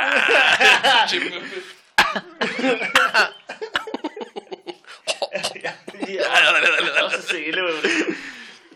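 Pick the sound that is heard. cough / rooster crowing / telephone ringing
cough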